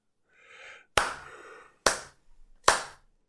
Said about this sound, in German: Kannst du nur klatschen. Kannst du nur klatschen.